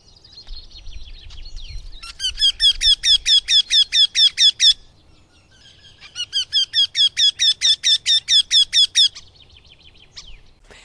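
Eurasian wryneck (Jynx torquilla) calling: two loud bursts of rapid, evenly spaced nasal notes, about a dozen or more each, high and slightly plaintive, separated by a brief pause, with faint twittering between.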